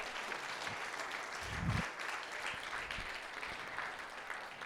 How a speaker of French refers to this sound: On peut pas applaudir le Seigneur ce matin.